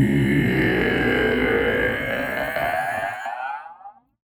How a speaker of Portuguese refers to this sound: A voz é grave, rouca, fria, cheia do eco de outras dúzias de vozes aflitas e que parecem vir de todos os lados, nos envolvendo, esfriando nosso corpo ainda mais.